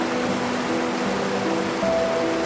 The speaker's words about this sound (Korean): 그리고 마침내 그해 여름에 강 앞에 섰다. 강물 소리가 와락 달려들었다.